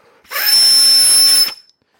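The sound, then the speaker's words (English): A single sustained burst of forceful breath blown hard into a Nintendo game cartridge, about a second long, rushing and airy with a thin, high whistle riding on top before it cuts off. “That is me blowing into a cart hard enough to make it whistle.”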